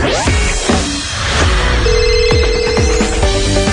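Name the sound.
school bell ringing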